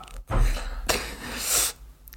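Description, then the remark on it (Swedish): A voice imitates a donkey's bray with two loud, breathy bursts in quick succession, with no other talking around it. “Ior, så låter svaret! Grå och packad häst är helt rätt.”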